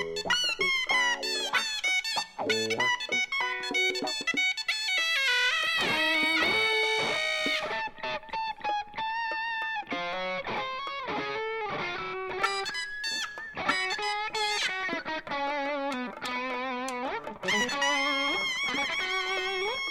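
An overdriven electric guitar and a piercing, nasal double-reed suona, isolated from a song's final mix with all other instruments pulled out, trade bright, sustained melodic lines, bending and sliding between notes, loud and dense throughout with no other instruments or voices.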